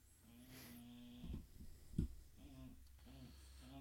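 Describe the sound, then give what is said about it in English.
A dog named Daisy snores, drawing low, droning rumbles broken by a couple of louder snorting bursts, in a slow, uneven breathing rhythm with no one talking. “She's snoring like a bulldog.”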